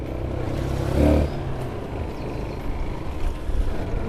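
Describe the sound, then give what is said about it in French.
A motorcycle engine drones steadily, swelling briefly in a louder rev before settling, with rushing wind and rumbling bumps from a rough ride toward Liabiondo in Masisi, on a road hard to reach by car, and no voices. “Euh, en direction de Liabiondo sur une moto parce que euh, la route euh, est difficilement accessible en voiture parce qu'il faut traverser une rivière avec un pont qui est cassé.”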